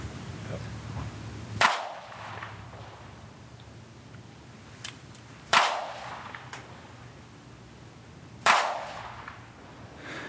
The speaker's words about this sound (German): Jetzt hat sie da wirklich mit einer Schreckschusspistole in die Luft geschossen. Also das ist eine Pistole, die nur tönt, aber keinen echten Schuss rauslässt.